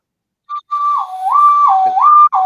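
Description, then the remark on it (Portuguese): A person whistles a siren imitation, a clear tone swinging slowly up and down in pitch, rising and falling about twice after a short opening chirp, fairly loud with no talking. “Fazer sirene, ó.”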